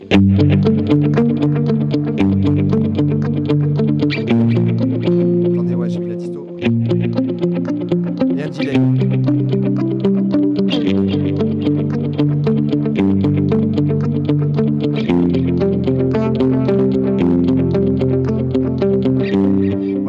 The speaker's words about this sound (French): Là, j'ai rajouté le delay à la, croche, à la noire pointée.